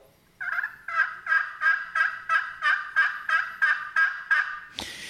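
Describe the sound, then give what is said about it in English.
A slate call imitates a turkey yelp: about eleven evenly spaced, raspy notes in a steady rhythm, clear with no talking, ending in a brief scratchy scrape. “And that slate mimics that very well. It does. So let's hear that one more time”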